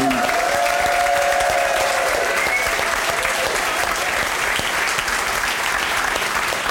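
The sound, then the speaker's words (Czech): A loud, steady burst of audience applause at a show as the winner is announced, dense clapping filling the whole stretch without letting up, with a brief tonal whistle-like sound at the start. “Velký potlesk.”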